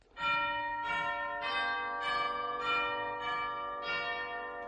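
Christmas bells ring out in a steady, loud sequence of strikes, about one every half second, their bright tones overlapping and sustaining into each other with no voices present, at the start of a Christmas carol recording.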